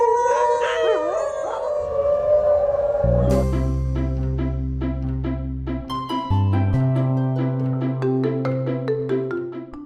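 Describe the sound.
A dog howls in a long, wavering, mid-pitched tone for a few seconds, then loud, steady music with a deep bass line and regular rhythmic notes takes over.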